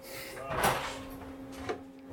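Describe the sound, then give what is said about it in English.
The door of a photographic darkroom opens with a soft knock and rattle as someone comes in, then a second, lighter click a second later as it settles, over a faint steady hum. “Oh, there we go. Someone at the door already. Come in.”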